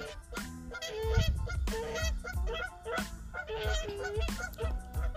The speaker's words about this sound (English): As you can, I don't know if you can hear the geese.